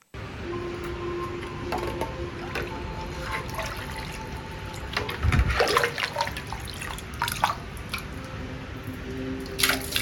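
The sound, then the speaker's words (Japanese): Water ladled onto hot sauna stones, bursting into a loud crackling hiss with sizzling pops and drips, then slowly fading into a softer fizzing tail, with a second splash near the end. “『サウナ』ロウリュ音の違いを感じる変態的な企画”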